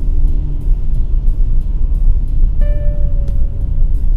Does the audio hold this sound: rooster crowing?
no